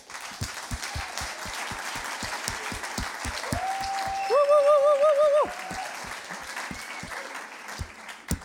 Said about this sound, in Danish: og jeg synes, vi skal give ham en kæmpe stor klapsalve.